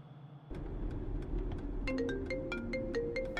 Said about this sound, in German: Ey Jungs, mein Handy klingelt, da ruft mich gerade eine anonym an.